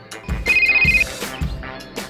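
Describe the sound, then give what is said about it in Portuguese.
A mobile phone ringtone from an advert featuring a shepherd with a mobile phone amid his flock plays loud, a bright electronic melody with a sustained beeping note over rhythmic low thumps, with no one talking. “Muitos irão lembrar do famoso pastor no meio do seu rebanho com um telemóvel, o mimo que apostava forte no mercado juvenil.”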